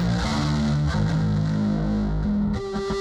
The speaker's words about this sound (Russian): Здесь очень активно поучаствовал, вот сейчас как раз таки слышите вот эти вот гитарные, гитарные рифы